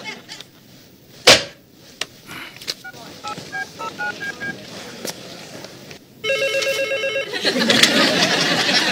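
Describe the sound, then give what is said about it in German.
A sharp knock, then a short run of electronic beeping tones, and near the end a telephone bell starts ringing loudly and continuously over a faint murmur of voices. “Es tut mir leid, aber ich bin mein ganzes Leben ans Telefon gegangen, wenn es geklingelt hat.”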